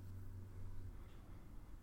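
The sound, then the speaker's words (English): A low, steady engine rumble with a faint hum, the muffled drone inside a moving car driving to find an old factory building, fairly quiet and continuous with no voices. “Do you want to get in the car and go see it?”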